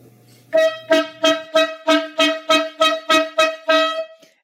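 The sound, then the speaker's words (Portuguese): A horn honks in a quick, steady series of about a dozen short, loud, clear blasts, with no talking over it. “Essa é a famosa corneta aleatória, para quem não conhece, tá aqui a corneta, mais uma.”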